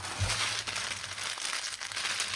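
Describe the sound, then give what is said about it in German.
A plastic bag of Knusper Puff Rice snack crinkles and rustles in steady, irregular bursts for a couple of seconds as it is pulled from a jacket, with a brief low thump near the start and no talking. “So, und jetzt ziehst du hier gerade lauter Sachen aus deiner Jacke raus.”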